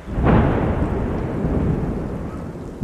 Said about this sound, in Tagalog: Lumakas lalo ang ulan. Lahat kami ay napatitig sa biglang pagguhit ng kulog sa kalangitan.